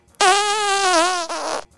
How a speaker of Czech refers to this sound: bohužel začal i uh, nahlas komentovat to, že si prdne,